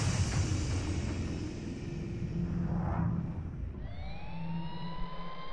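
A police car siren begins wailing near the end, its rising tones sweeping up over a steady, heavy rumble of engine and road noise, loud. The police car has come off the highway and is heading toward Rewari district.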